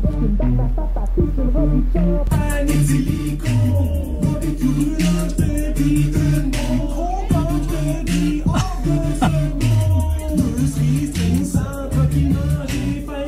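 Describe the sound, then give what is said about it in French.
A rap song plays loudly and continuously on the radio, with a deep, thumping bass line, a steady driving beat and a melodic vocal line riding on top. “Je sais pas, c'est un genre de, rap à la poutine ou quelque chose comme ça.”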